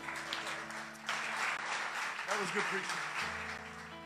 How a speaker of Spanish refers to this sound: Dale un aplauso, Señor, eso estuvo muy bueno.